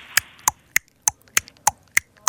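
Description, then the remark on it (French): A pony's hooves clop in a steady, even rhythm, eight sharp hollow knocks about a third of a second apart, crisp with no voices. “Ça, c'est le poney.”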